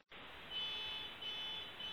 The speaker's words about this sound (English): so that's uh, him yeah, honking outside your window.